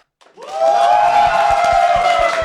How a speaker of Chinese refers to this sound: 这个好像比比你刚才的这个欢呼声高一点。